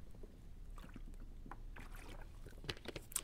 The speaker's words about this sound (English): Anyways, let me drink some water while we're here.